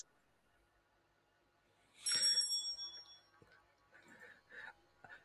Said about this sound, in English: And there goes the bell.